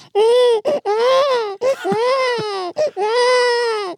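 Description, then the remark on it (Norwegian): A person imitates a newborn baby's cry at birth with loud, sustained wailing bursts, three long cries separated by short gasping breaths, continuous with no other sounds. “Og da kan jeg lage den flotte babylyden min.”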